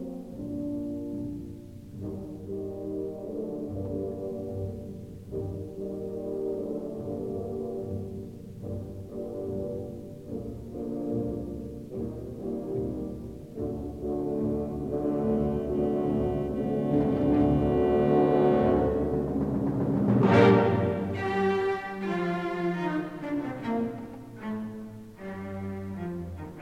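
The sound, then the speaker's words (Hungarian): An orchestra plays a movement of a symphony with rich, sustained low brass and strings, steadily swelling to a loud climax with a bright crash before easing back. No voices. “Berlioz fantasztikus szimfóniájából, ami tényleg egészen fantasztikus, hallunk egy tételt.”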